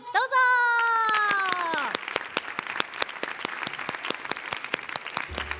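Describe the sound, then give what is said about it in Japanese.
A group of people applauds with steady, crisp claps to welcome three students at a public recording of a radio programme; a drawn-out voice or tone slides downward at the start before fading into the clapping, which continues at a moderate level throughout. “皆さん拍手でお迎えくださ”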